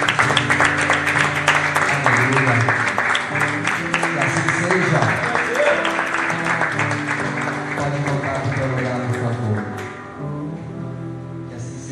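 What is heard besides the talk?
audience applauding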